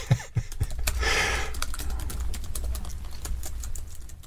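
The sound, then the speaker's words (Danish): Rapid clicking of keys on a computer keyboard, a steady run of distinct taps with a brief burst of louder noise near the start, no one speaking. “Du skriver til...”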